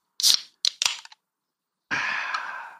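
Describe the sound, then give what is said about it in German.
A swing-top beer bottle is flipped open: a few sharp clacks and a pop, then a short pause before a steady hissing fizz for about a second. “das Ploppen hat sich gelohnt”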